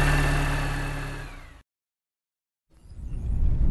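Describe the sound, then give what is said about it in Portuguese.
A hearse engine is started and runs with a steady rumble and droning hum as the hearse begins to drive, cuts out abruptly into a second of silence, then rumbles back in, building again. “Antônio dá a partida. Operação Cavalo de Troia. Começa a dirigir.”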